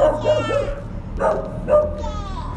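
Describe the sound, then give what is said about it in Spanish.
A dachshund barks and yips, four or five sharp, high-pitched bursts in an uneven rhythm, fairly loud over a steady low background hum. “Mira el perrito, Merlín, un perro salchicha.”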